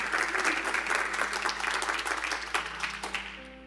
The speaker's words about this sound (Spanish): Vamos, dale bien fuerte ese aplauso a Jesús.